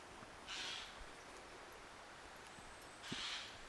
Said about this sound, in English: What do you think of that sound? That sounded like one angry crow to me. Can't see it, I just love crows.